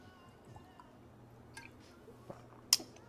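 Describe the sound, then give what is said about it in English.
Someone takes a quiet sip of Pellegrino sparkling mineral water: a few soft wet clicks and slurps, then one sharper liquid snap near the end, over a faint background hum. “Sipping Pellegrino at this point.”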